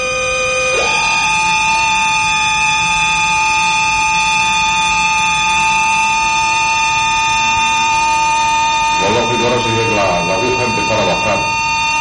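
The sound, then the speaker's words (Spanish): A loud, steady electronic tone from a plant-response detector drones nonstop as a clamp is applied to the plant, jumping up in pitch near the start and then holding flat and buzzy; a voice briefly speaks beneath it toward the end. “Entonces, si ahora sometemos a la pinza, es un ruido, como veis, bastante, bastante doloroso, y ahora la planta gritará.”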